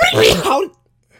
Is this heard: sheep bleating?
no